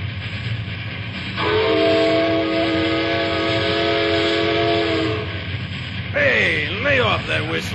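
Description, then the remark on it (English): A train's whistle blows one long, steady, loud blast over a low rumble as the train approaches on railway tracks, then breaks into shorter wavering, sliding tones as the rail noise carries on. “Somebody's got to get back up there and stop that train before it drops down here and completely messes itself and everything else up.”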